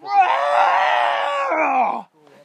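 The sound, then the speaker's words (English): A person vocally imitates an angry bull's scream, one sustained harsh bellow lasting about two seconds that breaks off abruptly, followed by a faint trailing sound. “And and as I'm doing the chuckles, he screams over me, just like,”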